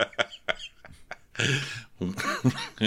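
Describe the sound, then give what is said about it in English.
A fairly loud burst of choppy coughs and hiccup-like catches, then a raspy, breathy stretch that breaks into voiced, sputtering laughter, all without any words. “Cough laugh.”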